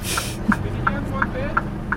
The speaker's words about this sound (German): Da hört man jetzt, der Abbiegeassistent, der funktioniert.